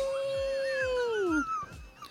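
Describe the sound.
A voice imitates a wolf howl: one long, steady wail that sags downward in pitch at the end, lasting about a second and a half, fairly loud and alone.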